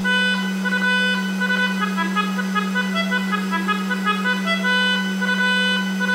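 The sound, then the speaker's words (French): A melodica, its tube taped to a hair dryer nozzle that Vineteiro links to his car's exhaust pipe, sounds loud, sustained reedy chords that shift slightly over a steady low engine-like drone, continuous for several seconds with no talking. “comme c'est un fervent partisan du moindre effort, Vineteiro, il se dit qu'il pourrait relier l'embout de son sèche-cheveux au pot d'échappement de sa voiture.”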